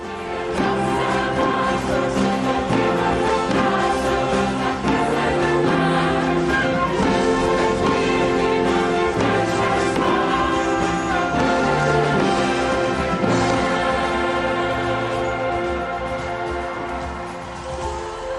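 A choir sings a slow, solemn entrance hymn at a papal vigil over full instrumental accompaniment as the Pope, in a wheelchair, arrives at the centre of the stage, the voices sustained and steady at a loud level before easing slightly toward the end.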